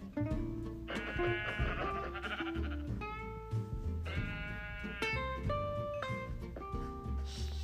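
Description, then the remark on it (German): A pair of sheep bleats from a video game, each a wavering, nasal cry, sounding over steady, fairly loud background game music with no one speaking. “Hör, das war grüne Wolle, hellgrüne Wolle war ein gelbes Schaf.”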